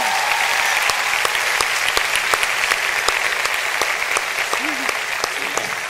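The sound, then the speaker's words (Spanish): An audience welcomes a guest with steady clapping for several seconds, a dense, sustained wash of applause with sharp individual claps standing out, loud, with a brief voice faintly audible near the end. “Quiero que recibamos con fuerte aplauso a Diego.”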